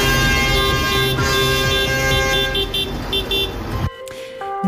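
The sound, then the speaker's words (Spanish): Loud, overlapping tractor horns honk continuously in a dense chorus at a farmers' tractor protest, where about five hundred tractors took part across the province, blaring together with engine rumble, before cutting off abruptly near the end into a few scattered toots. “Medio millar de tractores participaron ayer en las tractoradas que se producían por varios puntos de la provincia.”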